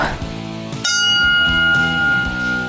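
A single bright bell strike rings out partway through to start round one, its clear tone sustaining steadily to the end while people keep talking underneath.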